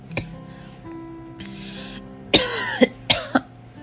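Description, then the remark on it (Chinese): Several harsh coughs from a person whose throat feels strange break out in two quick pairs, each burst sharp and rasping with a throaty edge, over a quiet low background hum and no talking. “你可以走路，还可以咳嗽。”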